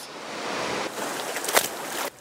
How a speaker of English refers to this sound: And if you look down below me, you can see the Bonaparte River is raging, and the ground below those mobile homes doesn't have much more to give.